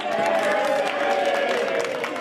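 A crowd cheers and claps continuously, a dense, steady wash of mixed voices and applause at an even, fairly loud level, as a 98-year-old man and his 95-year-old wife enter a small restaurant in the United States on their 75th wedding anniversary.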